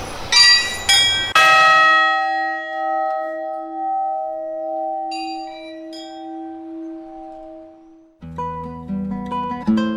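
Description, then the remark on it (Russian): Monastery church bells ring out at the start of the monastery day in a quick cluster of strikes, their deep tones humming and slowly fading, before a fresh burst of clanging peals starts up near the end. No voices. “Я когда учился звонить, тоже купил сидитофончик, долго выбирал.”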